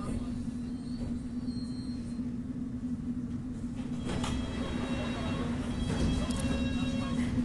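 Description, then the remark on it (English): A London Underground District line train to Upminster at West Kensington station rumbles steadily with a constant electrical hum, then brief metallic squeals and clatter come in toward the end, while a muffled voice sits faintly underneath. “Mind the gap between the train and the platform. This is West Kensington.”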